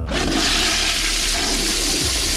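A toilet flushes loudly and close by, a steady rushing surge of water that fills the whole clip without pause, with no voices present.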